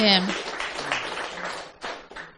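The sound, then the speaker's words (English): A voice briefly at the start gives way to a dense wash of audience applause, many hands clapping together in a steady, moderately loud burst lasting a couple of seconds. “Can we give an applause, please?”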